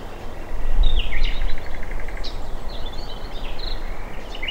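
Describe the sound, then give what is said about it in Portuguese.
Several birds sing and chirp on the branches of trees in a palace garden, with quick whistled notes and a short rapid trill, set against a steady rushing outdoor background hum, as a breeze blows from the Mediterranean. “Os pássaros cantam alegremente nos galhos paramos debaixo de um antigo cipreste para escutar essa cantoria por alguns instantes.”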